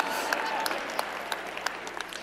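A crowd claps steadily, with a dense patter of hands and a few sharper individual claps standing out, at moderate loudness with no voices over it.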